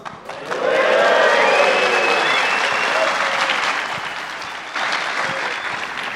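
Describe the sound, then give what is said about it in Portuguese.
An audience bursts into sustained applause, a dense wash of clapping that stays loud for several seconds, dips slightly, then swells again with some cheering mixed in. “Queria agradecer também a plateia, né? Deixar um, um, um barulho aqui pro pessoal que está em casa.”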